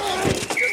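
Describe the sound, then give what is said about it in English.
Football pads collide in a quick, close crunch: a dull padded thud followed by a second shorter impact, all within a split second over a busy background. “The collide of football pads.”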